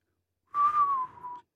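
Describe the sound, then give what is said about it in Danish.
Someone whistles a short tune, a clear sustained note that wavers and slides gently downward for about a second before stopping, with no talking. “Skal vi fløjte den?”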